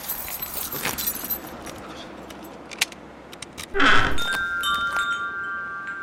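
keys jangling

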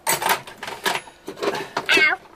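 cat meowing

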